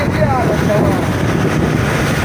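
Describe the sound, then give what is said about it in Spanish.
Loud, steady roar of wind buffeting the microphone over churning, rough sea water around a fishing boat, continuous throughout with no pauses, and a faint voice briefly audible beneath the noise. “Está, bravo, está bravo el mar, ¿eh?”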